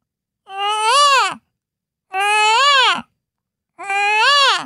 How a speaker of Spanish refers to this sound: Ahora, el pavo real.